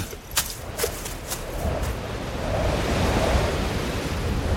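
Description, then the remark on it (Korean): A strong gust of wind roars in a broad rushing wash, swelling louder about halfway through and staying steady, with a few brief crackles early on and a surf-like rumble underneath. “한 무리의 거센 바람이 홍의 머리카락을 휘날렸다”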